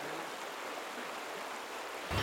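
Steady wash of moving water on the Magdalena River as a fisherman rows a small boat up the river, ending with a louder splash like an oar dipping in. No one speaks.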